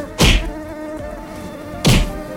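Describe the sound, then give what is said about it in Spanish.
A steady, high buzz of a hairy mosquito drones throughout, cut by two loud, sharp swats about a second and a half apart as someone tries to whack it. “¡Qué asco! Este insecto hasta pelos tenía.”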